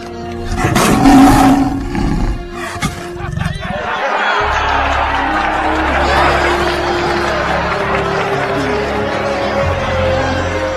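A lion lets out a loud roar in the first few seconds, then a dense, rumbling wash of noise carries on steadily behind it.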